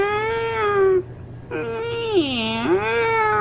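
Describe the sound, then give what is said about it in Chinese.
A man's voice imitates a cat meowing: two drawn-out, nasal meows separated by a short pause, the second longer, sagging in pitch before rising again at the end. “这个和尚啊，在门外学了三声猫叫，喵”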